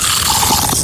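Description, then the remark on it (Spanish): Crispy, thick-cut Colombian potato chips with skin on crunching in a dense, crackly burst of rustling bites that fills the brief moment loudly, with no voices. “Ese es el sonido de unas súper ricas, súper crocantes, nuestras papas, las que sí son colombianas, las más crocantes con cáscara y más gruesas.”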